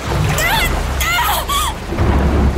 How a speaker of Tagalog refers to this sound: Sinabayan pa ng ulan! Lalong lumalamig!